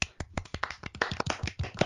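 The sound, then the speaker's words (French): A short burst of applause from a small group, given for a co-host's introduction, with quick, irregular, overlapping claps that stay fairly steady in loudness for about two seconds, with no talking. “Envie, on l'applaudit. Mais si on l'applaudit.”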